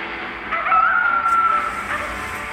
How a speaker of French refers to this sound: Tu l'as entendu Quoi Le coyote, c'est The Boss. The Boss C'est un coyote qui vient souvent par ici la nuit.